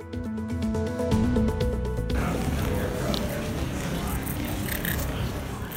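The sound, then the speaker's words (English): A brief tonal musical phrase gives way to a man carving his and his girlfriend's names into the wall of Rome's 2,000-year-old Colosseum with a key: gritty scraping strokes that continue steadily with small rasping bursts. “That's the sound of a man carving his and his girlfriend's name onto the wall of Rome's 2,000 year old Colosseum with a key.”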